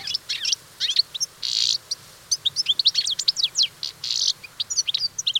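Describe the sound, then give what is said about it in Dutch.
A European goldfinch sings a rapid, tinkling song of high twittering notes and short buzzy trills, delivered in quick bursts with brief pauses, clear with no voices. “het is de putter.”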